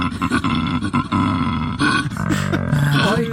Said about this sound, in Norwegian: dette her er jo um, koala